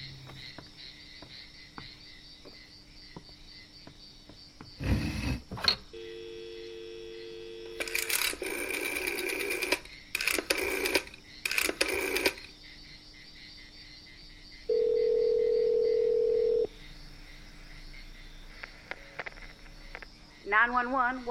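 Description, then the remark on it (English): A telephone dial tone sounds, then a quick series of keypad tones as a number is dialed, followed by a steady ringing tone, all clear over a low background hum. The phone is in an office in a doctor's house. “Um, right, the, the phone in his office.”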